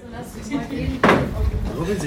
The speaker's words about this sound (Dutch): Die deur van die studio. Die is zo zwaar altijd.